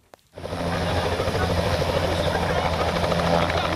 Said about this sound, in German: Umzugstag im Nairobi-Nationalpark. Ein Helikopter kreist über einem Spitzmaulnashorn. In dem Hubschrauber sitzt ein Tierarzt, der das Nashorn mit einem Luftdruckgewehr betäubt.